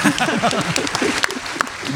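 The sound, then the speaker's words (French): An audience breaks into sustained applause, a dense steady patter of many hands clapping, with voices and some chatter mixed in underneath throughout. “c'est courageux et je propose qu'on les applaudisse, ça va nous éviter de nous endormir.”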